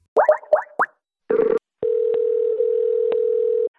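A few short electronic blips and a brief buzzy burst, then a steady, loud telephone ring tone sounding for about two seconds on an outgoing call to a professor's office at the University of Wisconsin Madison, with no talking.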